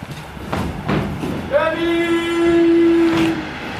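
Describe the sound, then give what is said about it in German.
A train goes by at the former railway grounds of the Südgelände park and sounds a long, steady horn blast lasting about two seconds, loud, over a background of rumbling noise and a few brief knocks. “Oh, jetzt kommt der Zug, jetzt gehe ich hier schnell rein.”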